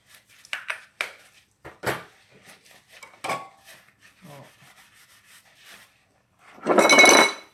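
Dishes being handled while washing up on a rainy morning: scattered clinks, knocks and scrapes over a few seconds, then a louder burst of rubbing or rushing noise near the end. No one talks.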